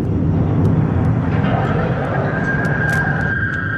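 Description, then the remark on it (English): A Boeing 707 jet airliner, dangerously low on fuel, drones steadily in flight, a loud, continuous low roar with a thin whine rising above it, while indistinct voices murmur underneath. “In the cabin, the flight attendants and passengers have no idea that their plane is dangerously low on fuel.”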